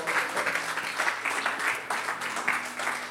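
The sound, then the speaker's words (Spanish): An audience applauds steadily for the musicians for about three seconds, a dense wash of many hands clapping at once, with a faint low hum underneath. “¿Cuánto dan un aplauso a estos músicos?”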